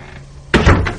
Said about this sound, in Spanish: Se ha cerrado la puerta. No la puedo abrir. Está atascada.